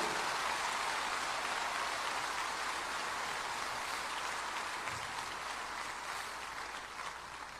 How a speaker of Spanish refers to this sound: gloria sea para el Señor. sea para el Señor, dele ese aplauso con gozo. Dele ese aplauso con júbilo.